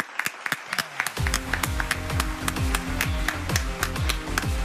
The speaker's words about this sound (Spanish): Un aplauso para ti, que lo has hecho muy bien.